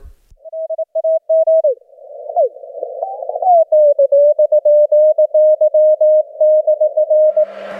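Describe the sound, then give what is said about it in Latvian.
Morse code beeps, a code in which sounds correspond to letters: a steady mid-pitched tone keyed on and off in short dots and longer dashes, loud and clear, with a brief warbling, drifting stretch in the middle before the rhythmic keying resumes. “Tas ir Morzes kods, jeb Morzes ābets, kurā burtiem atbilst skaņa.”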